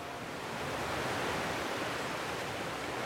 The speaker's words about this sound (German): Heute liegt die Bucht von Douarnenez im Sonnenlicht. Ein ganz leichter Wind nur kräuselt das Meer, das nun, es ist Ebbe, langsam zurückgeht.